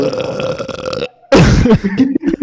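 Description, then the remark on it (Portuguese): A long, loud, guttural burp rumbles for about a second, followed after a brief pause by a burst of excited vocal reaction. “Eu preciso que vocês levantem as mãos para eu fazer o, o a Genki Dama do Arroto.”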